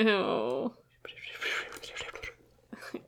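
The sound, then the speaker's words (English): A brief voiced exclamation gives way to close, breathy whispering sounds, a person imitating an eerie whisper right up against the mic, airy and hushed, trailing off into faint breaths. “He said it was clear whispers”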